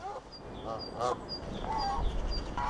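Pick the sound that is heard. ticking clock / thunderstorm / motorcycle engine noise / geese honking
geese honking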